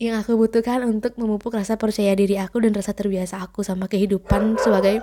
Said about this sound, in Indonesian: Itu tadi anjing aku namanya Jiko dia gonggong di sebelah kamar. Itu pasti masuk sedikit tadi di rekamannya, tapi nggak apa.